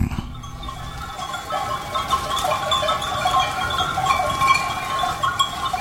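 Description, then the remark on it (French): A flock of sheep up in the mountains bleating continuously, many overlapping calls layered together, steady and moderately loud throughout, with no talking. “Lorsque je suis avec mes moutons, là-haut dans la montagne, je peux pas écouter British Connection.”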